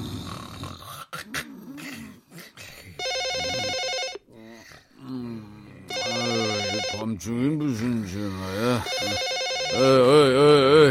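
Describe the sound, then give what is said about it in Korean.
A telephone rings loudly in three evenly spaced bursts, each lasting about a second, while wavering vocal sounds rise and fall between and beneath the rings. “전화 왔어, 전화.”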